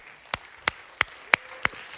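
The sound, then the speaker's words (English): Applause for first-time guests at a One Church service, heard as six sharp, evenly spaced claps in a steady rhythm, moderately loud against a quiet background with no talking. “Uh, for all of our first time guests, let's give it up for them.”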